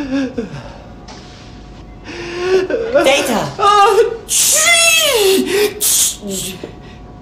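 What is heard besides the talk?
sneeze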